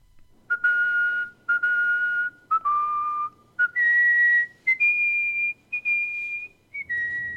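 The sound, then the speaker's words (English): A person whistles a clear, melodic tune, with sustained notes stepping up and down in pitch, separated by short breaths and pauses, with no talking. “The primary differences between and an average whistler that you might hear just on the street and a champion and an artistic whistler are a couple of factors.”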